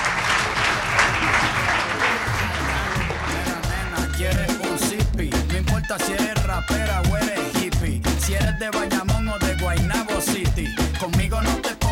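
A burst of loud, dense clapping from a group for a dancer on the Radio UMH programme Despierta UMH fills the first few seconds, then fades into upbeat music with a steady, punchy beat that carries on to the end.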